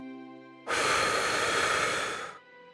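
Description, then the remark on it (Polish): One full, fast, forceful exhale through the mouth during a breathing exercise of ten such exhales, twice as fast as the inhale through the nose. A loud breathy whoosh lasts under two seconds before tapering off, with a soft steady tonal hum underneath. “Zaczniemy od 10 głębokich wdechów przez nos i 10 pełnych, szybkich wydechów ustami.”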